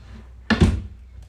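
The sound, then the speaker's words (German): A drawer slides open with one short wooden rumble and thunk, moderately loud, followed by near quiet and a faint tap at the end. “Hier geht die ganze Zeit irgend so eine Schublade auf.”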